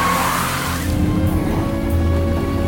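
A Volga car rushes along a wet road in pouring rain, its engine droning steadily while tires hiss through water, a broad spray of noise fading after the first second into a lower rumble.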